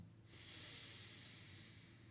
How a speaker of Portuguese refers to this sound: faz uma respiração mais profunda, uma inspiração